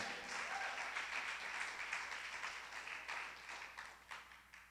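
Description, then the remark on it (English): A crowd applauds steadily in praise to God during a sermon, many hands clapping in a dense, sustained wash that holds at a fairly even level before thinning slightly toward the end, with no voices rising above it. “Some of you are so scared to clap for this. Give God some praise that there's hope for them and there's hope for sin.”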